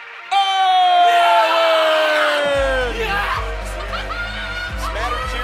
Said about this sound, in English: It's odd to hear boos coming from the crowd